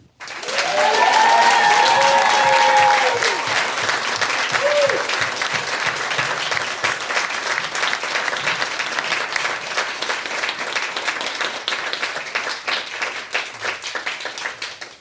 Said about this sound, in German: Und vielen, vielen Dank, dass ihr euch relativ spontan auf das Experiment heute eingelassen habt. Äh, das habt ihr ganz toll gemacht, das hat mir viel gebracht und das ist euer Applaus.